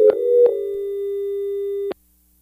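A steady electronic phone-line tone hums loudly for about two seconds, marked by a few sharp clicks, then cuts off abruptly into silence, as a caller's line drops on the Christian Car Guys call-in show.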